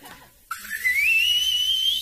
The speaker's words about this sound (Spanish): Háganse cuenta que ya le metió mano a una chava a este cuate y que yo suelto el chiflido y...